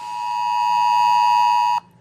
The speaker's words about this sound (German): Hier wird mit dem Handy nicht nur lautstark gewarnt, sondern auch Handy-Standortdaten, Überwachungskameras und auch Kreditkartendaten genutzt und teilweise gekoppelt, um vor dem Kontakt mit infizierten Personen zu warnen.